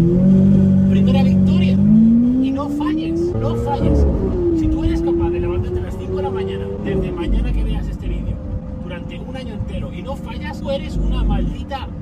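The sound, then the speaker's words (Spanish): A car engine revs loudly, its pitch climbing, holding, then dipping before settling into a steady rumble, with a voice talking over it. “Y por apilar victorias yo no me estoy refiriendo a generar dinero, comprarte un coche como este.”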